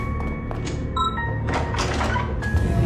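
A door opens mechanically: a dull thunk, a short whirring whine, then a sustained rushing hiss as it slides, all fairly loud with no voices.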